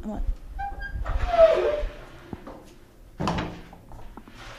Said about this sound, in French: Voilà, on pousse une impressionnante porte en bois avec des belles ferronneries.